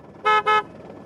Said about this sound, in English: Yeah, I was just noticing the traffic down there.